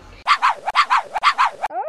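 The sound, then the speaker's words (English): A puppy named Jumbo barks rapidly and loudly while running round in circles at the top of a river bank, six high yapping barks grouped in three quick pairs, with no other voices, ending in a brief rising whine. “He barked all the louder.”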